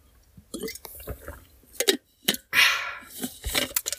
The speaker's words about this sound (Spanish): Eh, eso es, vamos a hacer pausita de beber agua. Y diréis, ya, sí, ya toca, ya toca.